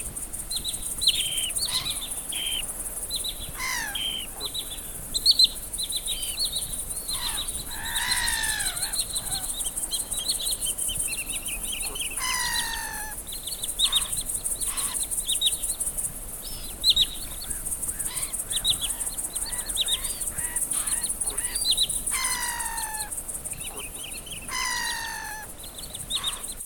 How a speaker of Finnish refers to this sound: ne elementit on nimenomaan nämä nuoret lokit, jotka siinä rannassa ruokailee ja sitten muutama pohjoisesta saapunut kahlaajalintu